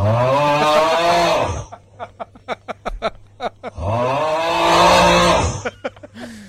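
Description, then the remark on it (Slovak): A man snores loudly in his sleep: two long, harsh, rattling snores separated by a short stretch of quieter, sputtering puffs of breath. “No a teraz späť od svojho chrápania teda k divnému a podivnému zvuku, ktorý sme tu mali.”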